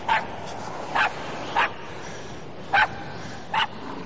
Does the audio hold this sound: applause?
no